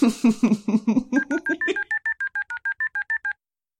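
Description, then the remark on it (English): A rapid, evenly spaced run of about twenty telephone keypad dialing tones as someone dials a phone call, clear with no talking, the first few lower and buzzier before settling into steady, identical two-tone beeps. “Let me give him a call.”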